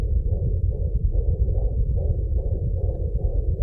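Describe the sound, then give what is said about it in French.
A fetal heartbeat on a Doppler monitor: a steady, muffled low whooshing with a fast, regular galloping pulse running through it, loud and continuous, with no voices. “C'est un son médical, un son de maternité. On était si heureux de l'entendre qu'on a décidé d'acheter un Doppler fœtal pour pouvoir l'écouter tous les jours”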